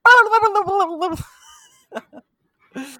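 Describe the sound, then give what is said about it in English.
A person vocally imitates turkeys gobbling with a rapid, warbling burst lasting about a second, followed by a few short, quiet vocal sounds and a breathy exhale. “like turkeys.”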